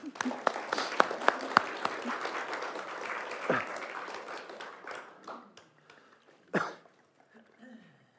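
A burst of audience applause welcoming a guest author at a book signing event, dense and crackling with sharp individual claps, fading out after about five seconds into scattered claps and a brief cough-like sound.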